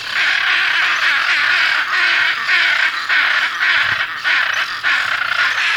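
Macaws screech loudly and almost without pause, harsh raspy calls pulsing in quick repeated bursts, as if several birds are calling. No one speaks.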